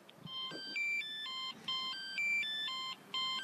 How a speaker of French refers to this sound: On va parler du bip, ce qui vous réveille quand vous êtes de garde. Quand ça bip la nuit, ça fait quoi exactement Eh ben, écoutez, là, je vais vous montrer. Regardez.